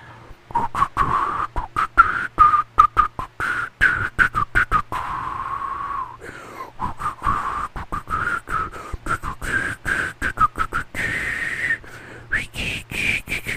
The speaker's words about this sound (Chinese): 哎呦，哎，鹿皮爸爸，鹿皮爸爸听得懂我的口哨是真的蛮厉害的哎。